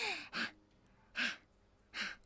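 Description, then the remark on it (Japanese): A voice imitates three sharp, startled gasps, as on catching sight of oneself in a full-length mirror, spaced about a second apart, breathy, with nothing else in the background. “で、鏡、姿見に自分が映るたびに、はぁっていう風になって”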